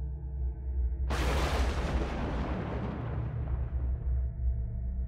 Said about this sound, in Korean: 어우씨 깜짝이야 그날따라 천둥 소리는 얼마나 크던지 너무 놀라서 갑자기 혼자 있던 이곳이 너무 무섭게 느껴졌습니다.